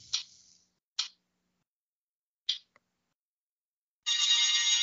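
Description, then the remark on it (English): A phone spinner app, spinning through years from 1974 to the present, ticks a few times. Sharp electronic clicks come further and further apart as it slows, then a bright sustained chime rings out at the end. No talking. “So we're going to spin the spinner, see what it says. Spinner rider, you're spin round my phone.”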